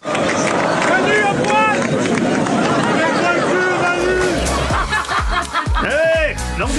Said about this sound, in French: Bah, moi j'étais au cœur de la foule, je peux te dire qu'il y en a certains, vu ce qu'ils criaient, ils avaient l'air de bien adhérer. Tendez l'oreille.